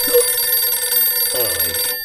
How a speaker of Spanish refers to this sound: Tengo que bajarle el volumen a este teléfono.